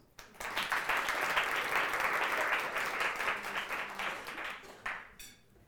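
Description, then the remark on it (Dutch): A crowd applauds steadily for about five seconds, a dense wash of many hands clapping that stays loud throughout, then thins out and stops abruptly. “Nog één groot applaus.”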